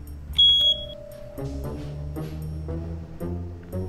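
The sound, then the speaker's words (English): An underground storage tank monitoring system alarm, a CSLD rate increase warning, lets out a short burst of loud, high-pitched electronic beeps, three rapid pulses, before giving way to lower, sustained tones with no one speaking. “Sure, UST operator training is now required, and most savvy retailers monitor their alarms remotely. But let's get real. Underground storage tank systems are complex, and most alarms aren't exactly easy to interpret.”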